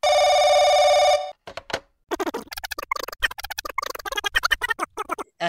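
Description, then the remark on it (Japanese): A loud, trilling telephone bell rings in one burst of just over a second, then cuts off, signalling an angry incoming call from a talent agency; after a short pause, a person starts talking rapidly. “社長、あの、芸能事務所の方から、あの、すっごいお怒りの電話がかかってきてるんですけど。”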